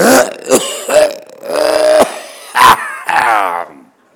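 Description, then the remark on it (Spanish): A voice imitates an audience member coughing during a performance: a series of loud hacking bursts interspersed with strained, drawn-out vocal groans, lasting about four seconds before trailing off. “O sea, alguien está viendo una función con una cara absolutamente bien, sonriente, le está gustando lo que está viendo, y de repente tiene tos y encantado o encantada con lo que está viendo, hace...”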